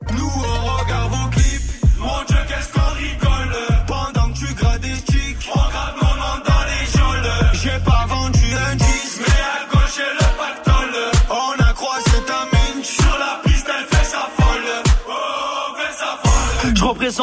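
A loud rap track plays on air at full volume, built on deep, booming bass and a steady, punchy beat that hits in a tight rhythm throughout, with no talking over it.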